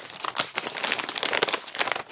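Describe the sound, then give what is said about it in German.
A plastic snack bag of fruit gummies crinkles and rustles as it is torn open, a busy run of sharp crackling bursts lasting about two seconds, with no talking. “Ich mach sie mal auf.”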